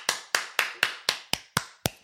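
Applause from a single pair of hands: about eight sharp, crisp claps in a steady, evenly spaced rhythm, fairly loud, with no voices alongside.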